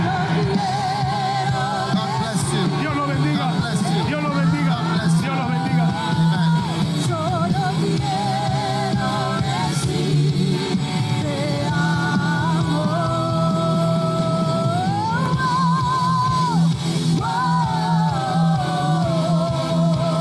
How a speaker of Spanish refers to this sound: Y todos gritan, amén.